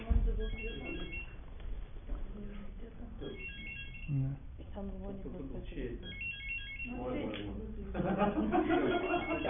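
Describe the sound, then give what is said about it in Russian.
A mobile phone ringtone plays in repeating melodic bursts, moderately loud, over a busy background of voices talking. “Наверное, кто-то свой телефон ищет. Надо узнать, кто-то действительно ищет телефон.”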